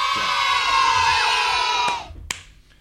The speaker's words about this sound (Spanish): Disculpame, poneme aplauso poneme aplausos. Necesito aplauso ¿viste? Porque eh, esto, la radio en soledad, ¿viste? A veces uno necesita un público.